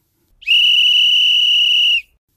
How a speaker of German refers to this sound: Und ich würde sagen, gleich hören wir den Anpfiff zur ersten Halbzeit.